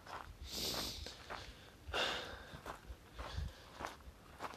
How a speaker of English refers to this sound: I'm sure it's noisy. I was just walking through some dead leaves.